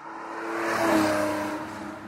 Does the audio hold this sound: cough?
no